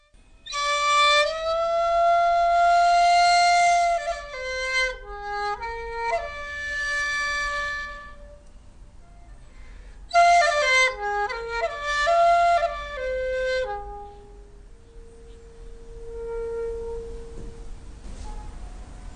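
A solo bamboo shakuhachi plays an improvised, breathy melody of long held notes with sliding bends, in two phrases separated by a brief pause, ending on a soft sustained low tone. No one speaks.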